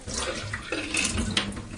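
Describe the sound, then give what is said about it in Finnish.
Rinse water splashes and pours steadily out of a container, a busy gush with small sloshing bursts over about two seconds and no talking. “kaadetaan pois täältä.”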